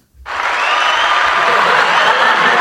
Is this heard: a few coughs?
no